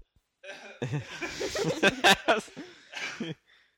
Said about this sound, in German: das unmännlichste Husten aller Zeiten.